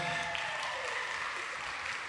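A round of applause from a crowd, dense overlapping clapping that holds at a steady, fairly loud level for about two seconds with no voices on top.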